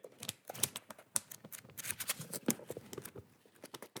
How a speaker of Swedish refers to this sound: Säg stopp då. Ska jag säga det nu? Ja, jag bläddrar ju i boken nu.